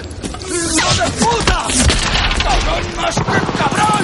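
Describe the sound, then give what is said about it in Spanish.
Sharp pistol shots crack out a few times amid the dense, chaotic noise of a firefight as soldiers draw pistols, with shouting voices mixed in and the din continuing without pause. “Sacan las pistolas. Horvath lo mata.”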